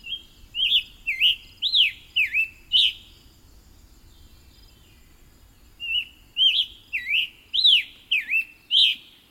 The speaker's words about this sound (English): occasionally across the hot fields, from a tall tree in the edge of the forest, comes the rich note of the scarlet tanager.